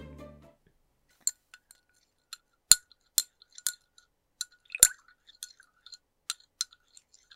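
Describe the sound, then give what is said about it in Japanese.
A spoon stirring plain milk in a thin ceramic cup, with a series of light, bright clinks tapping the rim at irregular intervals, a few louder strikes among softer ticks, with no talking. “ただ牛乳混ぜるだけなんですけど、まあ、皆さんはちょっとカフェオレ作ってるような気持ちで聞いていただければと思います”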